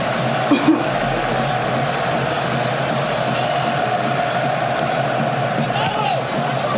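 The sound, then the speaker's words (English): A large football crowd roars and shouts in a steady, dense wash of noise, with a brief sharper burst of yelling near the start as fans appeal for a handball. “Shouting for a handball in there.”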